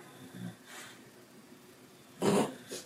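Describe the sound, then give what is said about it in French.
A sleeping pet snores softly, with a faint snuffle early on and a louder, raspy snort near the end, with no talking. “Désolée, le, bruit, c'est les nonnes qui ronflent.”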